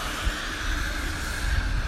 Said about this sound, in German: Ich ratter hier über das Kopfsteinpflaster, welches sich auf dem Gehweg befindet.